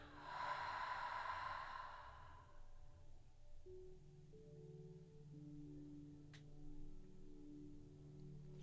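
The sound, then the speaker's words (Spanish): A long, airy breath, a deep exhale through the mouth during a guided breathing exercise, rushes out over the first few seconds, then fades, leaving a soft, steady musical drone humming underneath with no talking. “Inhala profundo y exhala por la boca.”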